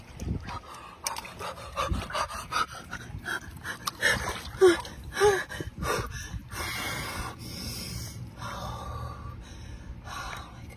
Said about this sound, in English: So I must get in this water. Are you ready? Okay. Five, four, three, two, one.